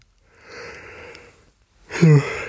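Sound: yawn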